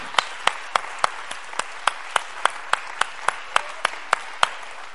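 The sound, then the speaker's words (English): An audience claps hands to the Lord in praise in a steady, even rhythm, sharp unison claps about three per second over a softer bed of scattered clapping, with no voices. “Come on, let's clap our hands to the Lord and let's give him praise.”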